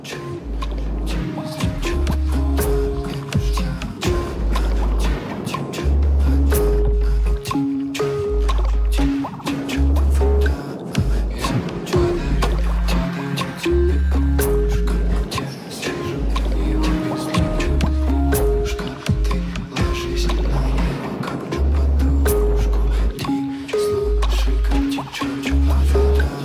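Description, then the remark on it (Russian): A musical piece built from water sounds: drips, splashes and liquid squelches layered over a steady, repeating low pulse, with sustained tones weaving through. Loud and continuous, no voices. “Весь его проект под названием «Река» и строится вокруг воды”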